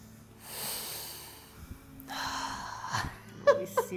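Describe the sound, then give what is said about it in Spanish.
Two long, deep breaths taken to calm anxiety, a slow airy inhale followed by a heavy exhale, with a couple of brief voiced squeaks at the end. “Y Oye, espera, espérate, deja respirar que me dio ansiedad, weón. Ya, respiremos.”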